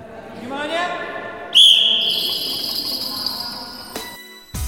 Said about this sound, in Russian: Вы слышите звук колокольчиков, которые висят на сетке. Задача игроков – перебросить через нее озвученный мяч.